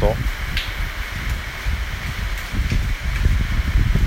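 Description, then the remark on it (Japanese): Heavy rain from an approaching typhoon pours down in a steady, dense roar, a loud continuous hiss with rumbling low patter, swelling slightly toward the end. “はいなんかねもうすごいでしょうこの雨の音”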